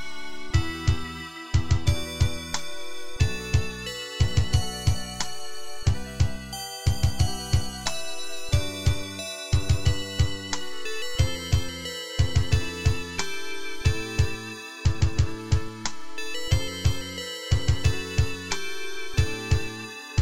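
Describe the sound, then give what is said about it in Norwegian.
A cheerful video game village theme plays alone, with bouncy, evenly repeated bass chords under a bright, tinkly lead melody, steady and moderately loud throughout. “dette er jo da landsbymusikk. Zepik Village.”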